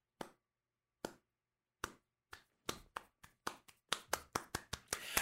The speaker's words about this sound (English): and then the most rapturous applause ever heard.